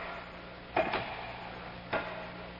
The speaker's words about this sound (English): She led me by the hand, a lamp in her hand, down a flight of steps into the vaults below. The music faded, and there was only the sound of our footsteps echoing on the stone.